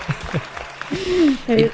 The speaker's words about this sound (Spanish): Bravo, espérate, que tengo por aquí aplausos. Ahí está.